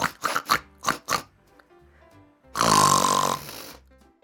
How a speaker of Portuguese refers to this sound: Talvez isso o faça parar de roncar e assim poderemos voltar a dormir.